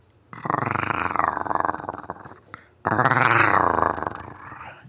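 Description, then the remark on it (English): A person imitates a tiger with two long, loud, rumbling growls, the first lasting about two seconds, then a brief pause before a second sustained growl that fades toward the end. “Bring out the tiger in you.”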